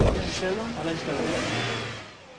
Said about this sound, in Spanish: Deutler recula en su Mercedes plateado y se aleja.